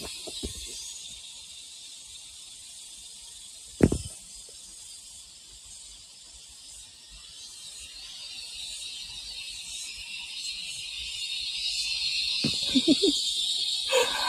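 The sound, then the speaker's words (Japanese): Cicadas buzz in an Australian summer in a steady, dense, high drone that fills the whole recording and grows slightly louder toward the end, with a sharp thump and a few faint sounds. “蝉の鳴き声が本格的な夏の到来を教えてくれています。”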